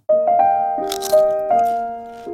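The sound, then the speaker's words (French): A crisp crunch like a bite into crispy food, heard briefly over sustained, stepping musical tones that carry through the whole short jingle. “Croustille, hein”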